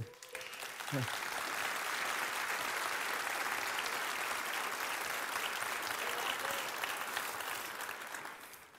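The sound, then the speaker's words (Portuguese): A large audience breaks into sustained, dense applause for Jesus that holds steady at full volume for several seconds before tapering slightly at the end, with a brief vocal cry near the start. “Meu desejo para mim, para você, para nós, pode aplaudir Jesus.”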